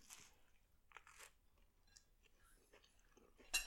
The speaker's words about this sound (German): Warte, ich muss jetzt auch noch mal einmal kurz reinbeißen, Moment.